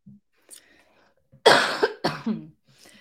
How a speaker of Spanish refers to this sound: estoy enferma hoy, estoy tratando de evitar no toser, pero no lo puedo controlar. Eh, estoy aquí respirando.